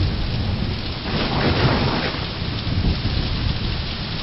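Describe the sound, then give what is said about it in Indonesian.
A worsening heavy thunderstorm: steady, dense rain pours down while deep thunder rumbles and rolls through, swelling briefly in the middle. Loud, with no voices. “badai bertambah buruk.”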